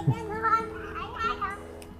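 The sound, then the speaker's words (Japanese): Children's voices chatter and call out playfully as they play happily, a steady lively background of kids at play with bright, high-pitched exclamations over a soft ambient hum, heard while someone is out walking. “子供がこう楽しそうに遊んでるので、いろいろとちょっとこう、こうお子さんの声が入ると思うんですけど”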